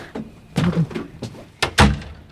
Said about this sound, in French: Et puis on va ouvrir une porte